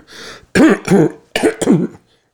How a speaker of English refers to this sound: going to have to clear my throat here okay i'm back